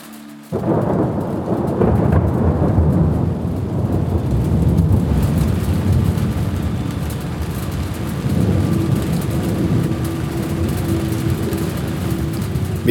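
A thunderstorm in the Himalaya, India, heard from a herders' shelter hut: deep, rolling thunder rumbles on and off beneath a steady wash of heavy rain, loud throughout, with no voices.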